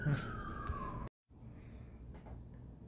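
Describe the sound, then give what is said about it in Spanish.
An emergency vehicle siren wails outside as it passes, with a steady downward-sliding tone, fairly loud over traffic rumble, then cuts off abruptly and leaves only a dull background hum. “Una disculpa por las sirenas, sí.”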